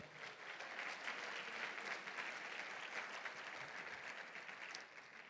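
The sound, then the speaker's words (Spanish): A crowd claps steadily for about five seconds as applause for the Lord, a dense, even wash of many hands applauding at a constant level with no voices standing out. “Bueno, dale un aplauso al Señor.”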